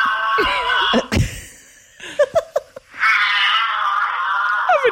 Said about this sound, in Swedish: Ja, nu tror jag att jag har fått upp ljudet här på en giraff.